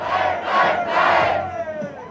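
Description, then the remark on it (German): A protest crowd loudly chants the slogan "Lobau!" in unison, with two strong shouted swells followed by a trailing, fading roar of voices. “Lass uns den Spruch noch ein paar Mal heute schreien, weil wir es echt feiern können.”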